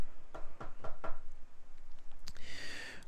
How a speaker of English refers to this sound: Okay, hold on. Grab, grab the phone. Knock on the door.